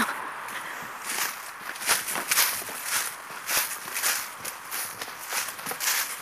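Steady footsteps crunch along a forest path through a small wood at Päivääniemi in Lempäälä, in an even walking rhythm, each step a dry scuffing crackle over leaves and twigs, with no voices.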